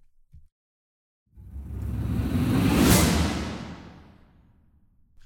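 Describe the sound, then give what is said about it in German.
A single small riser sound effect with choir at the end of a piece: a breathy, noisy whoosh that swells steadily for about two seconds to a bright peak, then gradually fades away, heard without speech. “Und äh, dann gehen wir auf den Schluss, denn wir haben so einen, einen kleinen Riser.”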